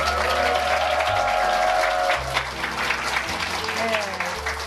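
An audience applauds steadily as a talk show begins, a dense wash of many hands clapping at an even level throughout, with some faint tones and a bit of vocal murmur mixed underneath.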